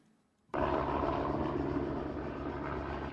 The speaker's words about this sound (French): En pleine forêt des Cévennes, cet hélicoptère bombardier largue de l'eau sur un début d'incendie.